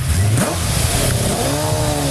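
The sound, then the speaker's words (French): A car engine revs hard and accelerates at the Gueux motor-racing circuit, its loud rising roar shifting pitch as it pulls away, steady and continuous for about two seconds with no voices. “et toutes ces voitures qui empruntent ces routes. Ce que veulent les, spectateurs, c'est quand ça fait du bruit et quand il y a l'odeur du carburant et l'odeur des pneus.”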